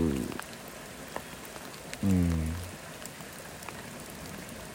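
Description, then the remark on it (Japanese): Soft, steady rainy-season (tsuyu) rain in July patters throughout as a light drizzle, with scattered individual drops ticking on a surface, during outdoor survey work. Two brief murmured vocal sounds rise over it, but the gentle shower continues evenly underneath. “雨の中今日はですねまあ調査ということで入っていますですね7月今日は割と梅雨っぽい雨ですね”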